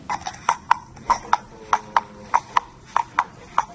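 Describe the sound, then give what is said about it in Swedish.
Horse hooves clip-clop steadily on asphalt, a walking rhythm of sharp, ringing hoof strikes falling in loose pairs, clearly audible over a faint background hum. “En häst som går på eh, asfalt.”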